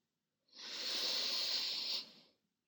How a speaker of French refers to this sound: Vous allez prendre une grande inspiration par le nez.